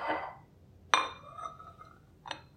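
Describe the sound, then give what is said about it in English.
A plate with sides, for unmolding a caramel custard, is set down with a sharp ceramic clink that rings briefly, followed a moment later by a second lighter clink, with a soft scrape at the start and no talking. “Okay, so I'm going to unmold it on a plate that has sides because that caramel is going to be a little bit runny.”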